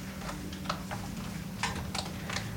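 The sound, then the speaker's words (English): Sheets of paper being shuffled and handled as a speaker prepares to read a Harryette Mullen poem, a series of short, crisp rustles and flicks at an uneven pace, fairly quiet, over a low steady hum with no talking. “So, as promised, um, going to read you one more Harryette Mullen poet poem, and wow, it's a lot of paper. Hang on.”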